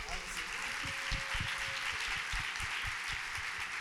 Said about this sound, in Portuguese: Uau, muito bem, merece um aplauso.